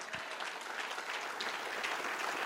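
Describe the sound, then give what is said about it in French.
A crowd claps steadily and loudly, a dense wash of applause filling the space with a few scattered cheers rising through it, sustained for the whole moment without any speech; an audience acclaiming the Lord at a preacher's call during a sermon. “Ah, je dis, acclame le Seigneur très très fort.”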